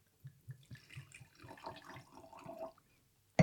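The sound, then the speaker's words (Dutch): Wine glugs out of a bottle in quick rhythmic pulses that settle into a steady pour into a glass, ending in a short bright clink. No one speaks. “Zal ik gelijk even de volgende inschenken?”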